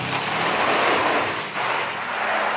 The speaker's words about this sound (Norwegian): Og det er én bil som utmerker seg. Den røyklegger hele området og drar piruett på piruett. Mye hester. Firehjulstrekk gjør at han kan stå sånn jævlig fort og snu rundt og rundt. Han har mye krutt.